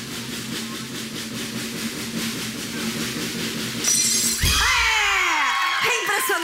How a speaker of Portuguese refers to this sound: Eu quero que você quebre esse copo com a força da virilha.